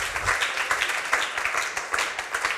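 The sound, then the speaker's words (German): Steady applause from a crowd for the band, dense overlapping claps at moderate volume for a few seconds, with no individual voices standing out. “Können wir Ihnen mal einen Applaus geben, weil Sie so gut sind?”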